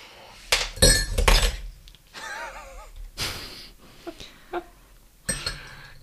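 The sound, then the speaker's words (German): Something gets knocked over: a sharp glassy clatter and clinking in the first second or so, followed by a few scattered knocks and rattles as things settle. “Hast du was umgeworfen?”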